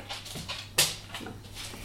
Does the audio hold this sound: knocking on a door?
no